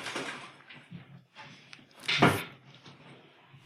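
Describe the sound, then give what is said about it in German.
Clattering and scraping of objects being shuffled around in a drawer, with a louder knock midway and a sharp bump at the end, fairly busy. “Du wolltest nicht deine gesamte Schublade umkrempeln.”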